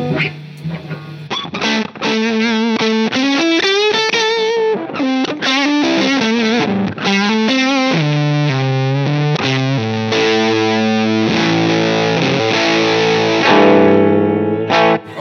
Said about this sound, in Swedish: Har man att det är väldigt overdrive-karaktär liksom. Ja, det här är ju ja. verkligen. Låter just overdrive.